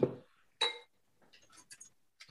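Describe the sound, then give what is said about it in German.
Packmas-branded wheat beer glasses filled with wheat beer clink together in a toast: one bright, ringing strike, followed by a few lighter, quieter clinks and taps. No one speaks. “Ich schenke mir jetzt erstmal ein Weißbier ein und zwar, ich sage es nochmal, in unsere Packmas Weißbiergläser, die wir damals bekommen haben.”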